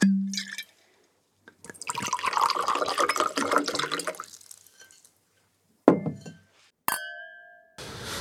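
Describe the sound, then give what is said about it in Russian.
Wine glugs and splashes into a glass for a few seconds, clear, followed by two sharp glass clinks, the second leaving a bright ringing tone. No one speaks. “Звуки наливающегося вина.”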